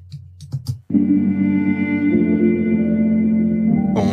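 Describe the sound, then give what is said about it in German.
A few short, clipped keyboard fragments open, then a chopped sample of a self-played electric piano, first recorded for another song, settles into one loud, steady sustained chord that rings on for about three seconds, with no voices; it is the main sample of a beat. “Und habe aus dem E-Piano wie ein Sample gemacht, das ich dann wieder aufschnitten. Und das klingt so.”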